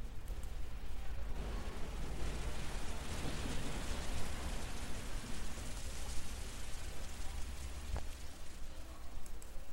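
Steady rain pours without a break, a dense continuous hiss of countless drops with a soft low rumble beneath, holding an even loudness throughout and no voices.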